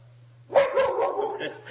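A dog barks in a quick cluster of sharp, overlapping barks after a brief quiet moment, with a faint low hum running underneath.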